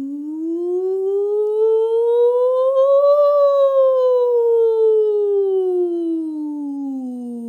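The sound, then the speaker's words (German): A single sustained voice sings a glissando, gliding smoothly upward from the low chest voice through the middle voice toward head voice, then slides back down again. It is one continuous siren-like sweep, steady and fairly loud, with no words. “Dafür eignen sich Glissandi ganz wunderbar, also gleitende Töne ohne bestimmte Tonhöhe.”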